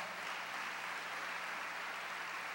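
A church audience claps loudly for the Lord in a dense, sustained burst of applause, many hands blending into a steady, even roar with no voices rising above it.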